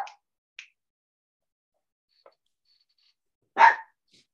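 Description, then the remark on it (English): A dog barks, a single loud woof after a couple of faint, clipped yips, with quiet pauses between them and no one talking. “Your dog wants to talk.”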